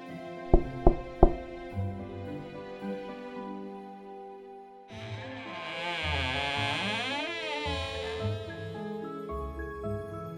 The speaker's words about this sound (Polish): Wreszcie dotarł do drewnianej chatki. Zziajany i zziębnięty zastukał do drzwi.